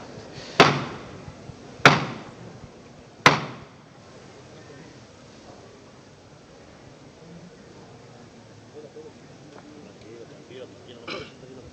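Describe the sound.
A procession float's knocker (llamador) in a procession in the diocese of Jaén, Spain, with costaleros waiting beneath the float, strikes three loud, sharp metallic knocks at an even pace, each ringing briefly, followed by a low murmur of crowd voices and scattered faint noises.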